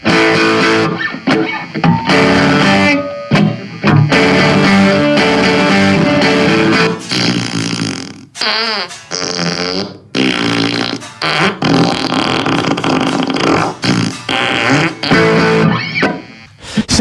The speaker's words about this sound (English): it, it doesn't it doesn't fart to the tune. Yeah, it, yeah. it just basically takes over and drowns out the guitar playing with rando fart noises.